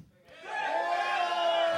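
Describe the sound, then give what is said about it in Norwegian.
A crowd bursts into loud cheering and shouting after a brief quiet moment, cheering for Team Peppes in a frozen pizza vote, building into a sustained, steady roar of many voices that carries on to the end. “Hvis dere er enige med disse, så gi en jubel for Team Peppes.”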